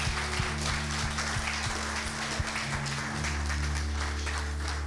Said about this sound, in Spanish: Dale un fuerte aplauso ahí donde estás y levanta tus manos.